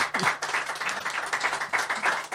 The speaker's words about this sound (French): Et je crois qu'ils peuvent euh, d'ailleurs euh, vous applaudir parce qu'il y a quand même du monde ici dans les studios. Donc je pense que si vous le souhaitez applaudir Monsieur Asselineau, c'est le moment.